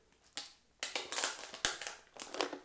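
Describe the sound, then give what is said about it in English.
A plastic water bottle crinkles and crackles in a series of irregular bursts as someone drinks water from it, with a brief pause before a longer stretch of crunchy handling; no one speaks. “let's drink some water here.”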